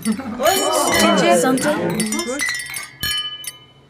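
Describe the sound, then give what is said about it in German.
Several voices call out together, then glasses clink sharply near the end in a toast to a nice evening, a bright ringing strike followed by a lighter second touch, clear as the chatter fades. “Na dann, Prost alle Mann und alle Frau.”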